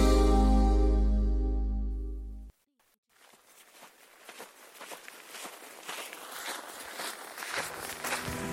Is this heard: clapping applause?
no